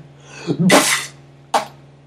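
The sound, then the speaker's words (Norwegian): A voice mimics a musician's sputtering, spitty blow into an instrument that fails to make a tone, giving almost no note and only spit: a loud breathy burst followed by a shorter puff, with no words. “sa lyden når han prøvde å blåse i gang nummer to. Det kom nesten ikke en tone. Men det kom bare masse spytt som fløy rundt omkring.”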